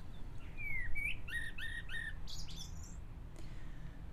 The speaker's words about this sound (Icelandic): Já, fugglarnir syngja, sólinn skín, hundarnir gælta og í fjarska heyrist í yðnaðamönnum að störfum, svona eins og sönnu íslensku sumri sæmir.